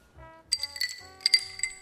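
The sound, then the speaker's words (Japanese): Several glasses of Kobe tap water clink together in a toast at a water bar, bright ringing taps in two quick clusters, each leaving a clear sustained chime that fades out. No voices, just the glassy strikes. “今一度乾杯。乾杯。”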